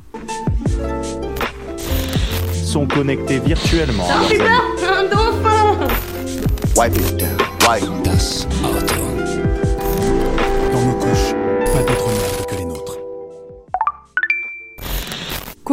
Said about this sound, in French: mais avant, jingle.